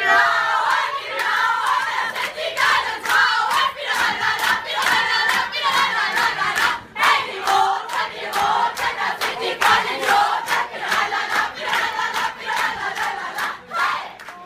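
A Funkengarde carnival guard group chants its rousing battle cry together, many voices shouting loudly and rhythmically in unison, sustained throughout with no pause.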